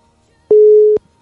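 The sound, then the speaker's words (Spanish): A single loud, steady telephone ringback tone sounds for about half a second while a guest is being called, a flat electronic beep heard clearly on its own with no talking. “Vamos a ver si nos contesta por acá.”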